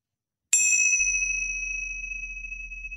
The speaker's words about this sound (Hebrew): וככה, בכל זאת, בשביל טיפת uh, זיקה למסורת, אז אנחנו נעזר פה במצילות, נשמיע את uh, צלצולן הענוג פעם אחת בתחילת התרגול, ושלוש פעמים לסיום.